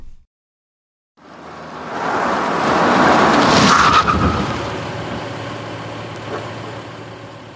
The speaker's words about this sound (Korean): 시간은 새벽 4시 44분이었고 자동차 엔진 소리가 들렸고 시바가 짖는 소리가 들렸으며 창밖을 어른거리는 헤드라이트 불빛을 볼 수 있었다.